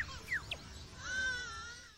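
A lyrebird mimics a human baby crying: a few short squeaky whimpers, then one longer wavering wail, clear over a faint hiss of background noise, with no talking.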